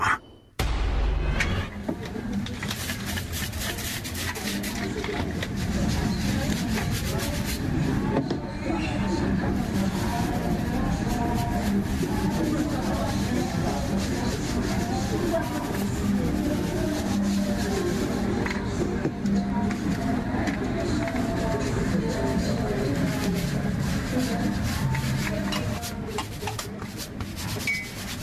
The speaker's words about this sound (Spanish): Bueno, estamos escuchando sonidos este, que tiene que ver con, zapatos, como boleándolos, ¿no? Como pintándolos.